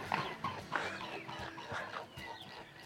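A swan takes off from the Ljubljanica river, its feet slapping the water and wings beating in a steady, rhythmic series of splashy thumps, fading slightly toward the end.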